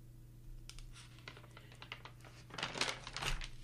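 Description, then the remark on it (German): Quiet, crinkly rustling of a paper page of a written speech being turned by the speaker, a few soft scattered crackles building to a louder flurry near the end, over a faint steady low hum. “Ihr merkt, ich muss umblättern.”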